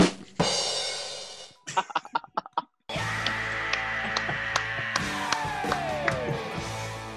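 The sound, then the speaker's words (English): An applause sound effect triggered by a clapping button: a burst of dense applause fades into a few scattered individual claps, then a short gap gives way to a loud, sustained crowd cheer with whoops. “our special effects are working. The clap, the clapping button worked.”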